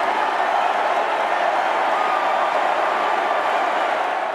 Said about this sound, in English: let's hear the roar of the crowd actually uh, when Bernie Sanders took the stage at the end of the night, just before 11 p.m. or so.